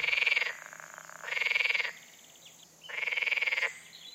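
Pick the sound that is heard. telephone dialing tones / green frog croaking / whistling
green frog croaking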